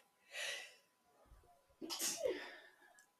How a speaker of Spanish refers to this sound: Ok, nos calmamos aunque estornudamos como 20.000 veces.